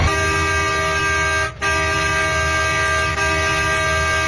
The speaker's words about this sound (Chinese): 顾华栋一路鸣笛，向最近的市第三医院开了过去。 一路上按着喇叭，以最快的速度，就是能超车一直要超车，时间就是生命。